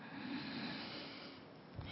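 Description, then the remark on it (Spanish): A long, deep breath drawn in, a steady rush of air lasting about two seconds with no talking, ending with a small catch. “Y con ese sentimiento de gratitud, ese júbilo, tomamos una profunda respiración”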